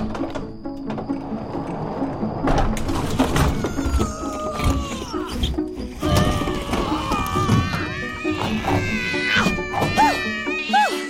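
A crowd of 47 cats meows over one another as they pull along a machine, their overlapping cries growing denser toward the end, over a steady rattling mechanical clatter.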